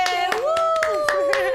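Steady, evenly spaced hand claps, about four per second, ring out over a sustained high tone that slowly slides in pitch, with no talking.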